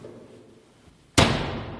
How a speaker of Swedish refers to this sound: Och nu kommer vi faktiskt nu kommer det mer smällar kanske av dörrar. Kommer det smälla tror du?